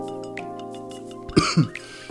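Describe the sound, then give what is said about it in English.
An abrupt cough of two rough bursts, like a throat being cleared, cutting over a steady low tonal hum that continues quietly around it. “Like, why are you coughing?”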